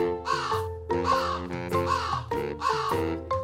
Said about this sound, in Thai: แต่เจ้ากากลับส่งเสียงทักเขาอีก